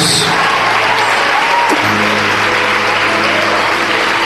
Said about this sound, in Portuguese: Saia do teu lugar e vem correndo aqui para frente e vamos aplaudir muito o nosso Senhor Jesus.